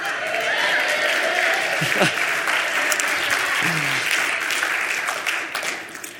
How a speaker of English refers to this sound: Are you guys clapping because I finished reading or because you like that?